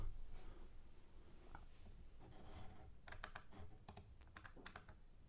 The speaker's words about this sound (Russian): Можно посмотреть, что значит приобрести. Я пишу в поиск. Приобрести это.